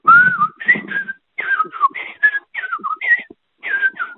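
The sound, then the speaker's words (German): A person whistles a melodious, warbling birdsong imitating a blackbird, a series of short fluting phrases with brief pauses, fairly loud, with no talking. “Die Amsel kann ich Ihnen nachmachen.”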